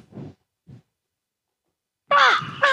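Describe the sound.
A person mimics a crow, letting out two loud, harsh, raspy caws near the end, after a couple of soft, low vocal murmurs and a stretch of silence.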